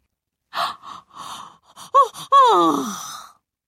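A voice imitates a yawn: a few breathy puffs, then a short voiced catch and a long, drawn-out groaning exhale that wavers in pitch and trails off.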